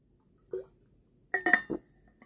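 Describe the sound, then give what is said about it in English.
Someone takes a quick swig of water: a soft knock, then a short cluster of glassy clinks and a gulping swallow, fairly quiet, with no talking. “Sorry, swig of water.”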